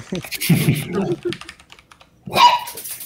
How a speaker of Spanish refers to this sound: Mis perros están jugando.